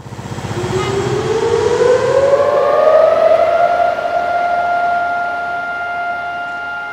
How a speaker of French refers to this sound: Aujourd'hui, comme tous les ans, la sirène a sonné à 11 heures une sirène qui marque le début des cérémonies commémoratives privées.